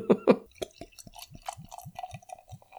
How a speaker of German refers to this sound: Dann lass uns doch mal beide unser Bier öffnen.